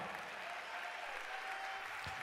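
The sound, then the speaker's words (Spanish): An audience claps steadily together, giving applause to the Lord, a dense wash of applause at an even level throughout, with no voices standing out. “Si usted es salvo, déle el mejor aplauso al Señor en esta hora.”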